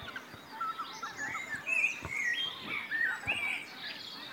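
Spring dawn birdsong before sunrise at Hyvelänjärvi, recorded by microphones set in a forest at the edge of a field by the water: many birds chirping and trilling at once, high-pitched overlapping calls forming a steady chorus at moderate volume, with no talking.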